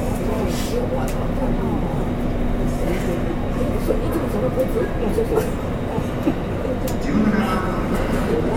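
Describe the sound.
Steady rumble and rattle from inside a moving JR West 201 series electric commuter train on the Yamatoji Line, running from Kyuhoji to JR Namba, with a constant low motor hum and faint voices in the background throughout.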